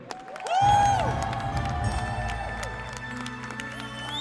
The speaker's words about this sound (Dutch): Geef haar een heel groot applaus.